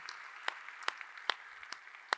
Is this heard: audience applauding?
yes